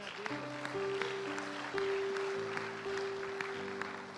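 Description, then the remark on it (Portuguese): A church audience claps steadily throughout in praise of God during a worship service, a dense wash of hand claps over sustained keyboard or organ chords that hold and shift. Moderately loud, with no voices standing out. “Aplaude a Deus, aplaude.”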